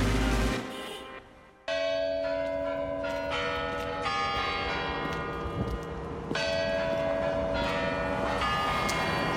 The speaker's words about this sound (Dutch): de klokken van het Kremlin. Bekend voor iedere Rus. Kremlin het symbool van de macht van Rusland helaas op dit moment op een hele foute manier. Maar die klokken die heb ik heel vaak horen luiden. En elk oud en nieuw twaalf keer de Kremlin klokken.